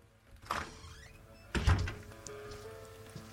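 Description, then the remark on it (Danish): A door opens with a short creak as a person comes in through it, then a heavy thud follows about a second later, with no one speaking and a faint background hum. “Personen, der har myrdet Henning Madsen, august 4. august 2018 kommer ind ad døren nu.”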